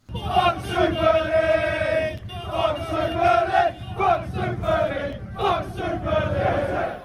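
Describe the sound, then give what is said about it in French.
A large crowd of Chelsea football supporters protesting in the streets of London chants in unison, loud and continuous, rhythmic sung phrases rising and falling over about seven seconds with shouted accents on each beat. “Sous la pression des supporters notamment, comme ceux de Chelsea qui ont manifesté dans les rues de Londres.”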